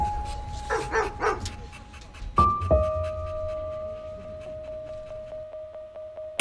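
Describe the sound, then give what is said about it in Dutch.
A shelter dog being trained barks and yips a few times in quick succession near the start, then goes quiet while a steady high tone hums in the background. “Ze trainen asielhonden, zodat ze weer een nieuw huisje krijgen.”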